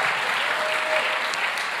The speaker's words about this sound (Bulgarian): Ако ръкопляскаш, ръкопляскай, като че му даваш слава.